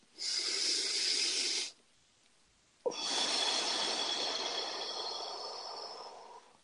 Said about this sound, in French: Gardez les yeux fermés, faites les respirations avec moi. Une autre respiration.